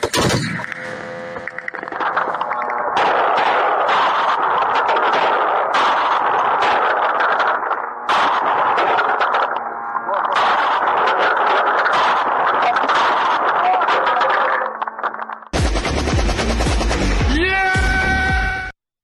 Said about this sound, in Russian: мобильные группы работают зенитными пушками и пулеметами в основном. Ну и вы видели, что днем даже можно из автомата сбить дрон.